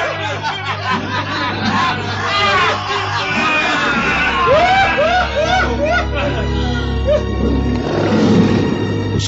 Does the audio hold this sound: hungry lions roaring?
yes